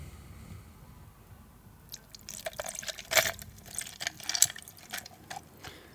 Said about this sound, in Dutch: Maar goed, je neemt dus het glas vol met ijs. Daar gooi je een beetje rum overheen.